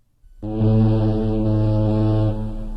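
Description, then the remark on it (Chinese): A loud, deep ship horn blares after a brief moment of quiet as a ship arrives on a foggy sea, holding one steady low tone with rich harmonics for about two seconds before easing slightly at the end. “这时候，外面突然传来了一阵响亮的汽笛声，耀眼的灯光照亮了河马一家的小屋。”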